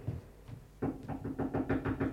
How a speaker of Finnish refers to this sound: Mikä pirskatti siellä koputtelee? Ei tuo oikein rotannakerukselta kuulu.